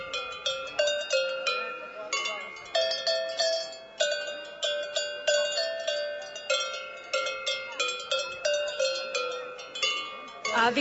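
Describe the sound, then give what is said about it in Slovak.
Tuned bells are struck one after another in a steady, lively melodic pattern. Bright metallic tones ring out with quick decays, loud and alone without any talking. “Takže som sa naučil na zvoncoch.”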